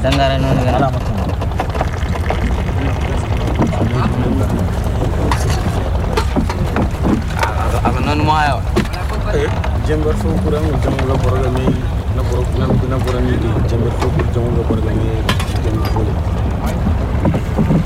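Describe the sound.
A pirogue moving along the Niger River while people take tea aboard with the crew: a steady, loud low rumble of the boat and wind noise runs throughout, with people's voices talking over it.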